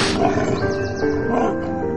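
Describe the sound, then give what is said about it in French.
A wolf growls loudly and steadily for about two seconds, a deep, rough rumble with a faint tonal hum underneath. “Elle se promène dans les bois elle rencontre un loup,”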